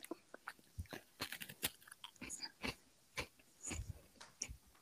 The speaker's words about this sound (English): Are you just chewing on chips?